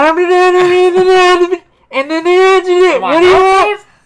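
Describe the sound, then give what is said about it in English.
A voice mimics a garbled McDonald's drive-through order intercom, making two buzzy, nasal, muffled bursts of babble with a pitch dip near the end, loud. “you got that little box that you, uh, sounds like this.”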